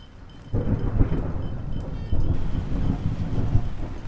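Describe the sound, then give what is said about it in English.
Steady rain hisses while deep thunder rumbles and rolls underneath, swelling in two heavy surges; no voices are heard. “After that, it started to rain.”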